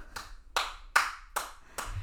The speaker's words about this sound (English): She's clapping for herself. That's her introduction.